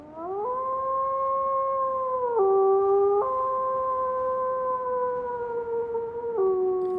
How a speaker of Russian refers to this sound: Увидев на руках острые когти, удлинившиеся ноги и ощупав шкуру на своей спине, он отчаянно и громко завыл.